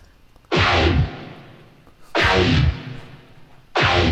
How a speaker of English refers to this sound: Yeah, and I, uh, so what I ended up doing with this was I tried to turn it into a, a bass noise, which sounds like this,